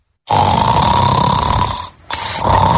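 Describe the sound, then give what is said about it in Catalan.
A person snores loudly in a long, rasping, droning inhale, pauses briefly, then rumbles into another heavy snore. No one speaks. “No despertis. Deu estar somiant amb el cotxe que vol.”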